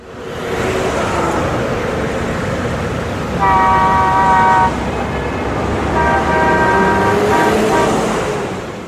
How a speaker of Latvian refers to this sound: Mašīnas braukā.